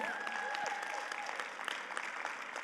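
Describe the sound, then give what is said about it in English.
A church audience applauds someone giving up cigarettes, with steady, dense clapping that holds at an even level throughout, with a few faint whistles or whoops rising above the applause. “Come on, that's what we should be clapping about in here, right?”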